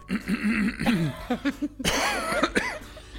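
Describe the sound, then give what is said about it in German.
A person clears their throat several times in quick succession, fairly loud, with rough, gravelly bursts and short voiced rasps, no words spoken. “Sorry, nee, ich musste mich kurz räuspern, weil ich bin völlig, völlig außer mir.”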